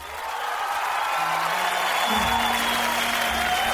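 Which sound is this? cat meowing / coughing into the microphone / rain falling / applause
applause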